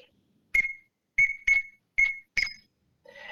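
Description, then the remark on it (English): Five short, sharp, high-pitched peeps from a teal whistle duck call, sounded alone in a quick, slightly uneven series, with a brief rougher sound starting right after. “so teal whistle is pretty simple. You're just going peep, peep, peep, peep, just like this.”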